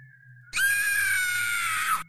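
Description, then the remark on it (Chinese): A woman lets out a single loud, high-pitched frightened scream as she throws away the phone in her hand. The scream lasts about a second and a half, sustained and shrill before cutting off, after a faint low hum. “惊叫了一声，她扔掉了手中的手机，手机的微光照着她因恐惧而变得苍白的脸，她瞪大着眼睛，浑身颤抖着。”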